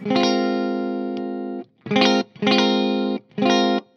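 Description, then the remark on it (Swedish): An electric guitar through a single-coil pickup in series-parallel wiring strums a long, ringing distorted chord, then three shorter chords in a steady rhythm, loud and harmonically rich, with no talking. “Där fick ni i alla fall en bild lite grann om hur en mick låter.”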